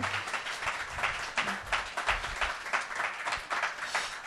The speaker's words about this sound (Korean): 네, 여러 박수 한번 주세요. 네. 아, 감사합니다.